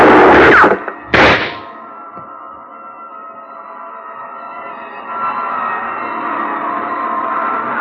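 Two loud, sharp gunshots ring out about a second apart, each trailing off in a ringing decay, followed by a steady rushing noise like wind that swells slightly and continues to the end.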